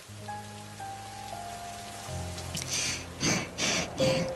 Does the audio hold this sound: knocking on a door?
no